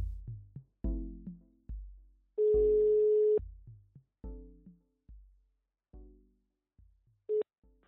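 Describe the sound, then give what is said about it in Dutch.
A telephone call being dialed to Pierre Kiel, CEO of software company Open Remote and partner in the Clean Mobile Energy project: short, quickly fading keypad beeps at varying pitches, broken by a steady one-second ringing tone, then more beeps and a brief final tone. No voices are heard. “Ik bel met Pierre Kiel, CEO van het softwarebedrijf Open Remote en partner in het project Clean Mobile Energy.”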